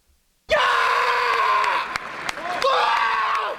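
An athlete lets out a loud, sustained wordless shout that holds for about two seconds, then a second powerful yell follows after a brief dip, intense.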